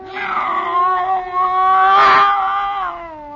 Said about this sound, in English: It was a cat. That scrawny cat Clara that Mother Willis had sneaked aboard in La Guaira.